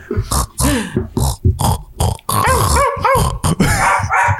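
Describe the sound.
A person does a loud dog imitation: a rapid string of barks, growls and yelping whines, with rising and falling pitched yips in the second half.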